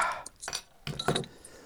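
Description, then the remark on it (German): A beer bottle being opened, with a few sharp glassy clinks and a brief metallic pop and fizz, quick and clear. “Aber hast du eigentlich auch schon Bier aufgemacht? Ja. Das ist ja schon quasi. Kei äh, äh, nee. Und jetzt mache ich mal.”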